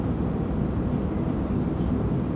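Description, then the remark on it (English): A steady, loud low-pitched roar of airplane cabin engine noise as the plane lands in Houston, a constant droning rumble with an airy hiss on top that holds even throughout. “Hopefully, you guys don't hear the airport, the airplane static that you might be hearing in the background,”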